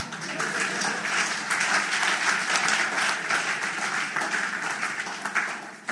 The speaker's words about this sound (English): If you are clapping, you clap.